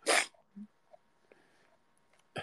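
A person who is ill lets out a loud, harsh cough, followed by a quiet stretch with faint small noises, then another forceful cough right at the end.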